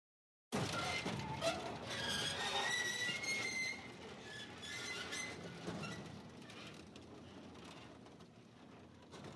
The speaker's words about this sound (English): Just after the tumble that broke his neck, I heard the familiar screeching sound of my garage door.